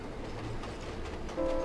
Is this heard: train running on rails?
yes